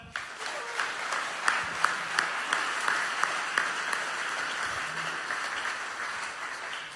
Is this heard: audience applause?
yes